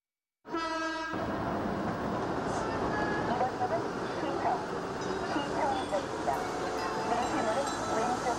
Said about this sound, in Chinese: 从这个地铁的声音开始， 对呀， 就非常的不同。